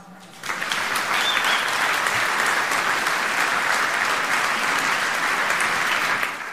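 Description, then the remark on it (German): Audience applause for Jugendhakt bursts in after a brief quiet moment and carries on as a dense, steady wash of clapping at an even loudness for several seconds, easing slightly only at the very end. “Großer Applaus mal für Jugendhakt.”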